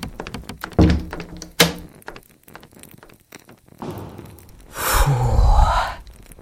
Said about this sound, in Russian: услыхав, как хлопнула наружная дверь.